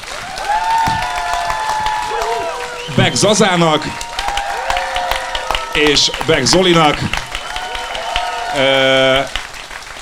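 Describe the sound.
Steady audience applause, a dense patter of many hands clapping, runs throughout while a voice speaks over it and a higher-pitched voice briefly cuts in.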